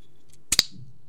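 A can of lychee carbonated drink is cracked open: two quick sharp clicks in rapid succession, the second trailing into a brief fizzy hiss, with no talking around it.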